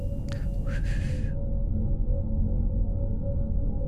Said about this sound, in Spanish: Y si crees ser seguido por una solo, debes silbar, porque ellas responden a ese silbido. Por eso escuches esos silbidos por diferentes partes. Son más de una.